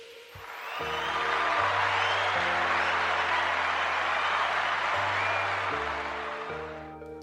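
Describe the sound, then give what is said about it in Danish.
Steady, dense applause from a crowd swells in and holds for several seconds before tapering slightly, with low sustained musical notes stepping in pitch underneath. It introduces a broadcast's traditional shoulder-pat award segment near the end of the show. “Og så som øh, klapsalverne antyder, så skal vi sende et øh, skulderklap afsted, ja, traditionen tro, i, øh, hen imod slutningen af vores udsendelse.”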